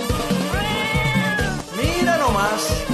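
Loud, drawn-out cat meows follow one another with rising and falling pitch, continuous, over a steady rhythmic beat in the background.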